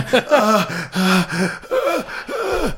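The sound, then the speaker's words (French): A voice acts out the dying gasps of a character stabbed with a sword, losing all his blood and near death: four or five strained, wavering groans and gasps in quick succession, fairly loud, with no other talk. “Maintenant rentre plus loin l'épée.”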